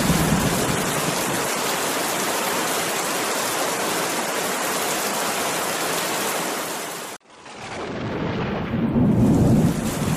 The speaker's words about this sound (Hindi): मूसलाधार बारिश हो रही थी और वो कमरे में बैठा जलथल देख रहा था बाहर बहुत बड़ा लॉन था जिसमें दो दरख्त थे उनके सब्ज पत्ते बारिश में नहा रहे थे